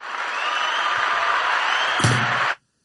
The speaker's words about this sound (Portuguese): Ah, foi um aplauso.